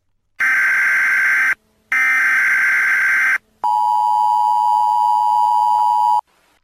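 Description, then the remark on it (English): A loud mobile phone emergency alert tone for a tornado warning in Arizona, sounding at 4 a.m.: two harsh, buzzy high-pitched blasts followed by one longer, lower steady tone, each separated by brief silences, with no voices. “And in fact, we realized it was coming from our mobile phones.”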